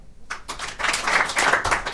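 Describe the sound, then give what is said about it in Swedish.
A burst of applause starts after a brief quiet moment and quickly swells into a dense, steady patter of many hands clapping, staying fairly loud to the end with no voices. “Applådera.”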